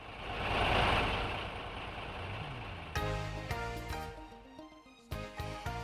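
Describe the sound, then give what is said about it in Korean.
A Munhwa Express express bus engine idles with a steady rumble and airy hiss, its pitch rising briefly before settling into a droning, tonal hum that continues to the end, with no voices. “고속버스를 타고 움직일 일이 있었습니다.”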